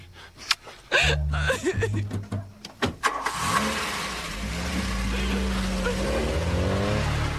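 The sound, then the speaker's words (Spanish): A car engine hums while several sharp thumps and clunks, like a door and footsteps, sound in the first few seconds as a doctor runs out of the car at a police station, then the engine settles into a steady rumble. “El médico baja corriendo del auto en la comisaría.”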